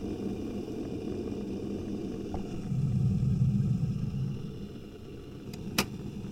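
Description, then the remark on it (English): A kettle in an office heats water for tea, rumbling steadily, the low roar swelling louder for a couple of seconds before easing back, then a single sharp click near the end as the water is ready. “So that's another sound in my office tea still heating up.”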